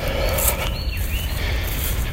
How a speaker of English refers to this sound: I'm walking. You can hear these birds yelling at me, like, "Hey, he's back and he's walking again." So yeah, taking a stroll through the country